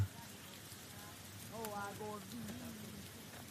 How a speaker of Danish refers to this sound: Det er, det er folk kommer og siger, jeg synes, det er underligt, at de kan høre, at det er drøb der, ikke? Og de ved ikke, det regner.